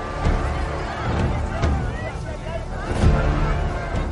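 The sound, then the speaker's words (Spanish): A steady, heavy vehicle engine rumble with a couple of sharp impact bangs, the loudest about three seconds in, over a murmur of crowd voices, as a car crashes into another car and then drives off. “Un coche choca con otro.”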